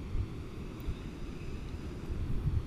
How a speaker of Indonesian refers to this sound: jadi suaranya tuh agak cuman klik kedengeran noise gitu nggak kedengeran kayak suara ombak mungkin gue harus deketin ke ombaknya kali ya baru nanti kedengeran kayak suara ombak asli gitu kalau dari jauh sekilas kayak suara noise gitu aja sih